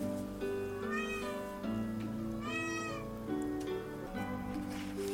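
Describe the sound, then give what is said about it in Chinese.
A kitten meows several times in high, thin, wavering cries, heard over a steady humming tonal background with no one talking. “我这里也有小猫在叫哦。”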